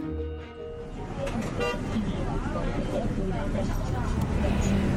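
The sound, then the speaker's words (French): A short car horn toot sounds at the start, then fades into a steady, loud rumble of city traffic heard from inside a bus travelling to Boulogne-Billancourt, France, with indistinct voices mixed in. “Je suis dans le bus, je vais à Boulogne-Billancourt,”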